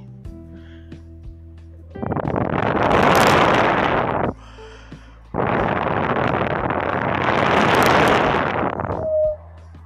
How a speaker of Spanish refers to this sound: Se escuchaba a lo lejos los vientos huracanados y la lluvia caía y caía.